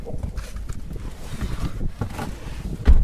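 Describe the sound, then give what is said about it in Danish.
Steady, heavy wind buffeting roars over a low engine rumble as a car drives with its windows down on the way out to the Femern construction site. The gusty noise stays loud throughout, with no voices. “Det er vi øh, kører med vinduerne ned.”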